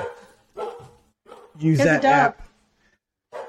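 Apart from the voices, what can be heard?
dog barking at someone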